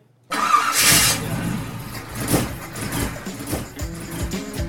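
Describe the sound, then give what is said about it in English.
An old car engine cranks and catches after a brief silence, then settles into a rough, uneven idle with sputtering pulses, loud. “Hey, it sounds like it's time to swap out that old engine for something better,”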